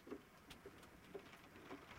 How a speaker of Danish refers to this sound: Ej, hvor det regner. Nu tror jeg faktisk, det havler sporadisk.